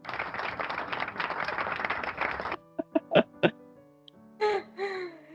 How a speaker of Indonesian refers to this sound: gue kasih tepuk tangan dulu nih